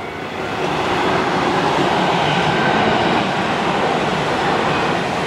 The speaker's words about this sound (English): Oh shit, first train went by, another one's coming immediately.